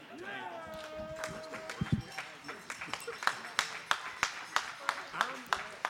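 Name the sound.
audience applause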